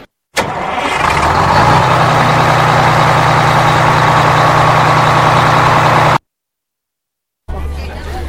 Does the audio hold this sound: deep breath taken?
no